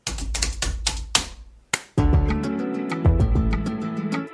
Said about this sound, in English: There was a clap on the end of that for anyone eagle-eared.